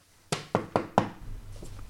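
Four sharp knocks on a door in quick, even succession, fairly close and loud, followed by quiet room tone.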